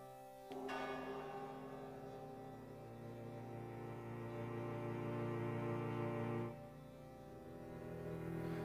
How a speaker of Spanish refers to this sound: De fondo escuchamos el tema principal de la banda sonora